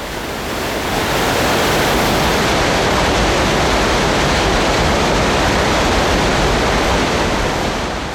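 The roaring Mardalsfossen waterfall, with two characteristic drops, fills the air with a dense, steady rush of white water, loud, holding an even, unbroken intensity throughout with no voices.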